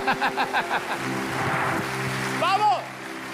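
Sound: audience applause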